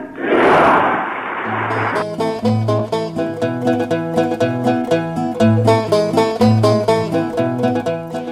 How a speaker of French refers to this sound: Ensuite, ceux qui sortent du Palais d'Orient cherchent à regagner les abords des Cortés où il y a quelques instants Juan Carlos Ier vient d'être proclamé roi d'Espagne, après le dernier adieu à Franco, c'est les Viva au nouveau roi. Viva Espagne